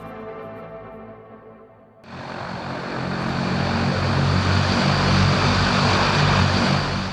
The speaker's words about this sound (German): Vielleicht haben Sie, habt ihr das Geräusch erkannt, das ist das unverkennbare Dröhnen und Brummen der Triebwerke einer Transall.